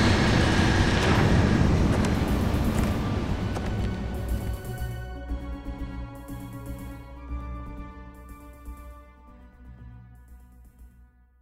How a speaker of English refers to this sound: The barrier opens.